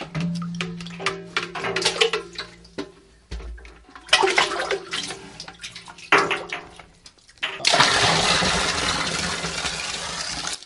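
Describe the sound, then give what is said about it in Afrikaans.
Water drawn up from a hand-dug well lined with two drums: metallic clanks and scraping rattle for several seconds, then a loud, steady gush of fresh-looking but slightly salty, brackish water pours and splashes until the end. “Trek vir my 'n bietjie daar uit.”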